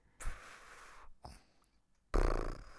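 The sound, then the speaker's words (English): A person imitates a snoozing cat's snoring with three breathy, raspy snorts. The first is long, the second short, and the last is the loudest and roughest. “A snoozing cat. Can you do a snoozing cat”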